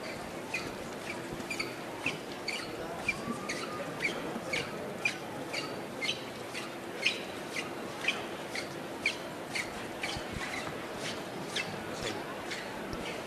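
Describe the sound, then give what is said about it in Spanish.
Racheo: rhythmic shuffling of costaleros' feet carrying a procession float in La Alfalfa, a steady scraping pulse about twice a second, repeating evenly throughout over a low murmur of a crowd. “Enseguida Volvemos con ese sonido de racheo en la alfalfa.”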